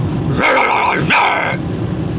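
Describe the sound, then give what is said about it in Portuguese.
A voice imitates a fierce dog, giving two loud, gruff, drawn-out barks in quick succession, alone with no other talk. “este pequeno fantasma que se passeava com uma túnica branca e a sua roupa interior brincava distraído quando aparece um cão feroz e faz.”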